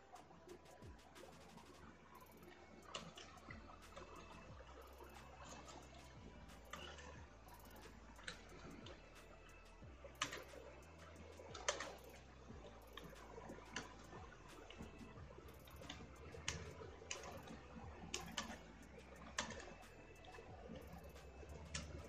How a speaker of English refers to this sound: Now, I'm typing in the YouTube search results